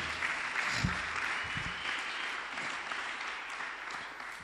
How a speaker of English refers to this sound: Okay, clap, clap.